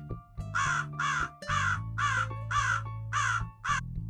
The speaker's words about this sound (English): He kept repeating the same thing over and over as if his suspicion would go away only when he got an answer out of me. I stomped my foot, mad as hell, but the clever crow would not budge, screeching the same sounds again.